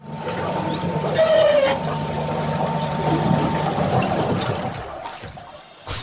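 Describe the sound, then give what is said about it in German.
A quiet electric whisper boat glides through water in Holland, with a soft steady hum under continuous swishing and lapping. A brief higher whine rises near the start, and no one speaks. “Das ist der Sound von einem Flüsterboot.”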